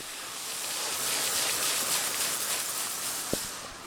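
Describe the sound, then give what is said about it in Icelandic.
Steady, broad hiss of water being sprayed onto small stones in a sieve to wash the soil off them and check for stones or beads, holding level throughout, with a brief sharp knock near the end and no voices. “og sikti það er svona fullt af einhvern smá steinum og þú ert núna að spröyta vatni á þá til þess að losa moldina frá þeim og sjá hvað eru steinar og getur verið perlur og svo framvegis, eða ekki?”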